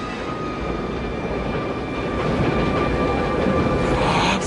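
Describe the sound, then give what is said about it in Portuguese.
A train sound effect: a steady, loud mechanical rumble with a faint whining hum, swelling slightly louder partway through. It is continuous, with no voices. “Saia do meu trem!”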